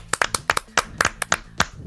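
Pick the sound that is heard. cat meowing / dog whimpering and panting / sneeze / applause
applause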